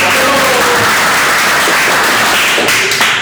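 A crowd applauds in a steady, dense wash of clapping that stays loud throughout, with a faint voice briefly audible beneath it.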